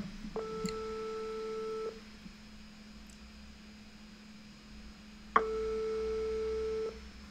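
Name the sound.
telephone call ringing tone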